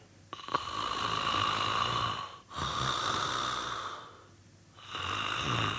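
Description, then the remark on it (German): A person imitates snoring: three long, rasping, throaty breaths in a steady rhythm, each one loud and rattling, with brief pauses between them and no talking. “sondern auch für denjenigen, der schnarcht an sich. Ja, ich mache das gerne einmal kurz vor.”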